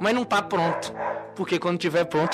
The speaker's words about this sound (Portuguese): Esses né, cão literalmente nos atrapalhando.